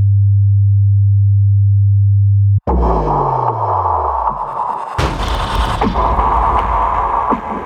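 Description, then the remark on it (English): A steady, low electronic station distress alarm tone drones for a few seconds, then cuts abruptly into loud, continuous rumbling with a falling pitch sweep and a sharp burst partway through. No one speaks. “Station distress code active.”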